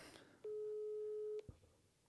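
A single steady one-second ringback tone from an outgoing phone call, clear and fairly loud, framed by faint handling clicks and a soft thump just after it ends.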